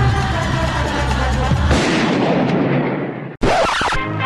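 Loud, rapid rifle gunshots blur together into a dense, roaring barrage, with a brief cut near the end before the firing resumes.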